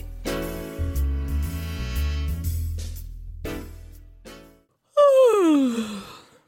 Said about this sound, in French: Enfin, parce que tu bailles à l'antenne, là. Euh, dis-le si on t'ennuie.